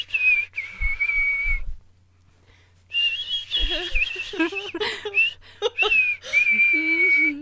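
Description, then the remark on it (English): Someone whistles a song melody in clear, wavering notes, pausing briefly before carrying on with the melody while voices murmur and laugh underneath in places. “I mean, like if I try and hum it on the notes that you're hitting with your whistling, yeah.”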